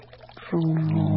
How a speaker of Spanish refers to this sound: El agua clara caer sobre el cántaro.